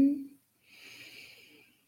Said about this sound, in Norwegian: Puster inn.